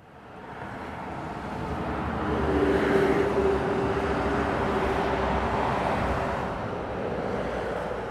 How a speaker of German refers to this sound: Der Weg führt nämlich über die Autobahnbrücke. Ganz nah an der Autobahn hat es Häuser.